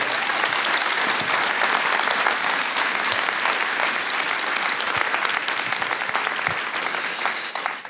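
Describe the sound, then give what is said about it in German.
Sustained applause from an audience, a dense, steady wash of many hands clapping at an even loudness for the whole stretch, with no voices standing out. “lieber Markus, das ist dein Applaus.”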